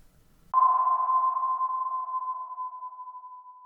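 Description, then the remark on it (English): A single bright, bell-like ping strikes suddenly and rings out as one clear, steady tone, fading slowly over a few seconds. No voices or other sounds accompany it. “more a jingle rather than singing.”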